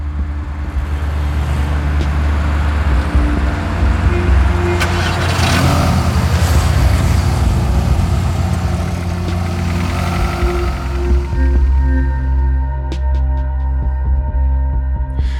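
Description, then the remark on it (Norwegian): Several cars lined up outside rumble and idle with a steady low throb, occasional revving swelling in the middle before settling back to a smoother idle hum. “Så vi radde opp de bilene vi behøvde utafor, og så var det av gårde.”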